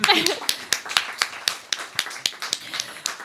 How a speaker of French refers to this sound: On peut les applaudir.